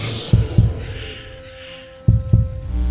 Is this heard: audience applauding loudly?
no